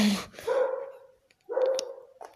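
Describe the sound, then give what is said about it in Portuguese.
A dog lets out two distinct barks about a second apart, clear, with a short quiet gap between them and no talking. “O cachorro também tá fazendo podcast, mas.”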